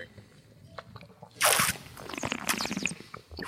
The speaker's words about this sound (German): Schlürfen ist ganz wichtig hier. Immer schön ins Mikro, das freut den Tontechniker.